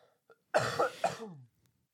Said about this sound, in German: mich entschuldigen, ja. falls man meinen Husten die ganze Zeit irgendwo auf der Aufnahme hört.